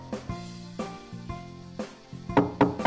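Hollow knocking on a door in a bedtime story, a few spaced raps followed by a quicker, louder burst of three, over soft sustained musical tones.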